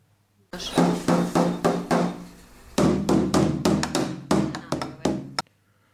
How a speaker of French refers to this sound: Mais que se passe-t-il si le tambour n'est pas circulaire Ce n'est pas une question abstraite puisqu'il existe euh, par exemple des tambours carrés dans la musique traditionnelle espagnole. Écoutez donc.